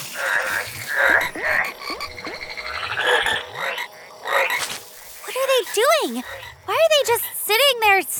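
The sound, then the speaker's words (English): Frog-like creatures croak repeatedly, a busy run of raspy calls that shifts into loud, warbling rising-and-falling chirps toward the end. “Hey, I hear flogs.”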